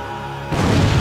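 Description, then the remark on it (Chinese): A distant explosion on a snowy mountain slope booms in halfway through, a sudden loud, deep, thunder-like blast that keeps rumbling heavily and echoing through the mountains to the end, following a quieter, steady background. “远处传来一声巨响，接着是砰的一声，像是打雷一样。”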